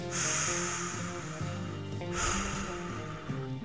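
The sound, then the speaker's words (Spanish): Two slow, deep breaths taken while counting to three, one right at the start and another a couple of seconds later, each an airy rush over soft background music, with no talking. “Y entonces este conteo debe de ser voy a contar hasta tres respirando.”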